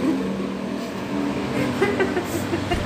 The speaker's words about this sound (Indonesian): suara motor kenceng banget kayak tadi kita ngobrol nggak ada kenceng kenceng suara gitu